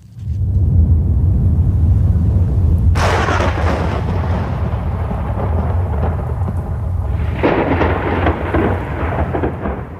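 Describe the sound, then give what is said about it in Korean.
A heavy hailstorm of large hailstones falling from the sky, with deep, continuous rumbling thunder and a dense pelting wash, broken by two loud thunder cracks, the first about a third of the way in and another near the end. “하나님께서는 하늘에서 큰 우박이 떨어지게 하셨습니다.”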